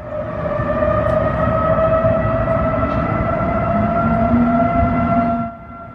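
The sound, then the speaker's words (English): Outdoor emergency warning sirens in Dallas, hacked and set off a little before midnight on a Friday, blare in a sustained, steady wail with several layered tones, loud and continuous for about five seconds before cutting off abruptly, leaving a low background rumble. “The sirens went off a little before midnight Friday.”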